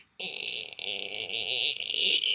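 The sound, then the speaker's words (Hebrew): A voice imitates a long, creaking door swinging open: a steady, raspy, wavering squeal that starts abruptly and holds for about two seconds without a break. “אני אומר שהפתיח אה, אה, אה, הפוטנציאלי יכול להיות בזה שכשהבן אדם לוחץ על הפליי, פשוט יישמע צליל ארוך של פתיחת דלת, אבל פתיחת דלת מגילה כזו, כזה.”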